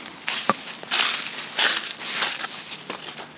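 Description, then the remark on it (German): Dry Maldivian leaves crunch and rustle in a series of irregular crushing bursts, loud and crackly, with no talking over them. “Jetzt raschelt das Laub hier, hörst du?”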